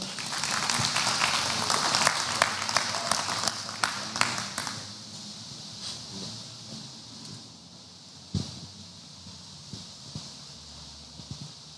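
An audience at a church service gives applause to the Lord: brisk, dense clapping that stays loud for a few seconds, then thins out and trails off into scattered claps and a quieter murmur.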